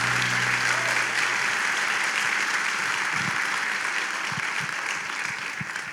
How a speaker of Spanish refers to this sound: Se ese aplauso al Espíritu Santo, démosle fuerte ese aplauso a Él.